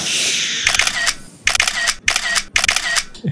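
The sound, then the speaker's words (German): Three quick bursts of camera shutter clicks taking a photo, each a rapid rattling snap, fired in a steady rhythm with brief pauses between, over a soft background hiss and no talking. “soll, soll ich mal das, äh, die Kamera halten? Ich habe hier, ich habe einen längeren Arm und das sieht dann vielleicht auch ein bisschen besser aus.”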